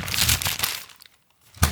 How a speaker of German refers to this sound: Und dazu gibt es unser klassisches Rascheln.